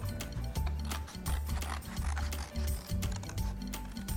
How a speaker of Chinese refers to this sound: 好，我的瓜牛画完了，再来呢，就用剪刀把瓜牛的形状剪下来。